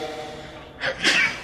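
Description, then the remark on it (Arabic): A sharp sneeze bursts out after a brief quiet during an Arabic lesson on Islamic inheritance law, a short breathy intake followed by a louder, hissing explosion of air, heard on its own without talk. “يرحمك الله”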